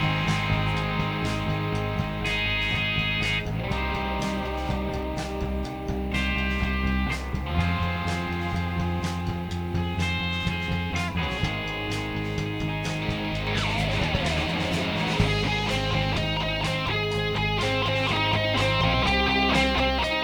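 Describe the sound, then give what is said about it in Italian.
A song plays continuously for about twenty seconds, full and steady in loudness, with a driving beat and layered melodic instruments. No one talks over it. “Sentiamo la canzone che galoppa, galoppa.”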